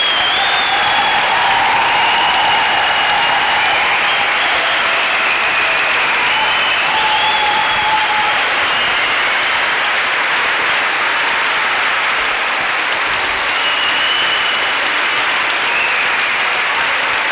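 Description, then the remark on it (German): Sustained, loud audience applause for the women from Heidelberg on stage, who will prepare the last Frühlingstreffen in 1995, fills the whole stretch, a dense steady clatter of many hands clapping with a few faint whistles or cheers riding on top. “Ja, der Applaus geht immer noch allen Heidelbergerinnen, die 1995 das letzten Frühlingstreffen vorbereiten werden.”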